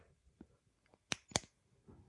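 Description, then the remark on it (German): A ballpoint pen, the second of several pens being compared for click quality, clicks twice in quick succession, two crisp snaps about a quarter second apart, with quiet room noise around them and no one talking. “Vergleich Stift Nummer 2.”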